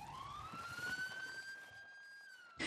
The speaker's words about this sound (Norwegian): Samtalen vår blir avbrutt av en ambulansesirene.